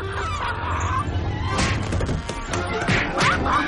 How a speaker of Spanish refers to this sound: Este último agarra un pecho a Ofelia, esta cree que ha sido Freddy y le da una fuerte bofetada.